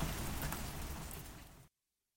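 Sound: heavy rain falling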